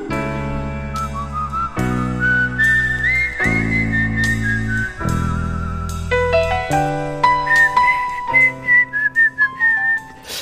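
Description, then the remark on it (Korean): A person whistles a wandering melody over a steady instrumental backing, the tune rising and falling with a few fluttery, uneven notes near the end. “아, 이 편음 소리가 잘 안 돼요.”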